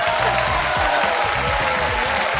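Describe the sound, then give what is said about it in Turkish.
An audience at a contest claps steadily and loudly as a jury member is introduced, a dense wash of many hands that holds at an even level the whole time with no voices on top. “Alkış bir putperest adetidir.”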